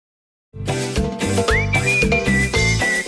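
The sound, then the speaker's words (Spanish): A person whistles a family's identifying calling signal, the kind a parent uses to call the children, a rising swoop that settles into a long held high note, repeated, sounding clearly over busy background music. “Vamos, a todos en la familia latina tenemos un silbido que nos identifica porque el papá o la mamá siempre nos llamaba.”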